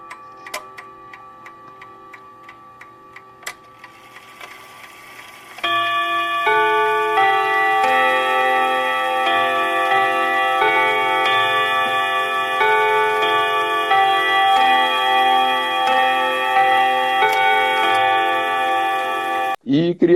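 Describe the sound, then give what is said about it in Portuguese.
A clock ticks steadily and fairly quietly for a few seconds, then a loud, sustained chiming melody starts and rings on over the ticking until the end. “já que tu emendasse é, o, o, surgimento desse relógio aí,”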